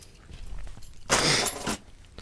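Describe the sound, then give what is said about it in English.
A set of keys is tossed off a table, giving a single bright, jangling metallic clatter that lasts about half a second and stands out loudly against quiet background. “I had to throw my keys off the table, so I know where they are later on.”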